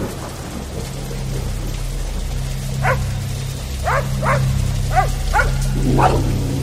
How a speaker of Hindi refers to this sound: पॉमी के भौंकने और रोने की आवाजें